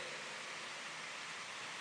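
Steady rain falls in an even, continuous hiss, filling the space with a dense wash of sound and no voices.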